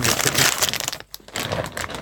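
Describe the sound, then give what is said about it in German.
A plastic bag crinkles and rustles loudly, with crackly bursts, a brief pause, then more crinkling as its contents of onion, bell pepper and garlic are shaken out into a pot. “Willst du nicht die ganze Tüte da Will man das nicht ein bisschen verteilt haben?”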